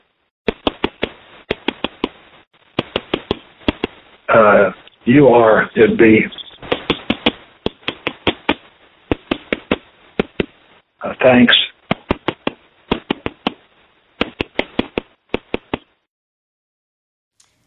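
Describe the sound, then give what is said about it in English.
Prisoner tap code knocked on a wall to tap out letters: sharp, dry taps in short rhythmic clusters separated by pauses, on a thin, low-fidelity phone recording, with a few brief spoken interjections between the tapping groups. “So uh, what you just heard was the tap code.”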